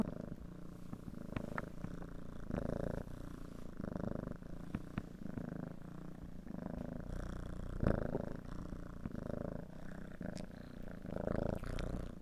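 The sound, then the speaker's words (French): A kitten named Mouche purrs steadily, a continuous low rumbling hum with a soft rhythmic pulse that carries on for several seconds without any talking. “Voilà, puis Mouche, euh, Mouche mon chaton, euh, il euh, fait beaucoup de câlins.”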